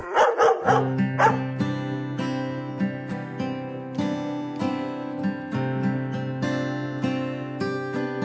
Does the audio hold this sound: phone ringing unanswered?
no